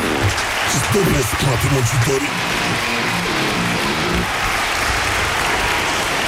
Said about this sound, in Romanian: Aplauze. Aplauze.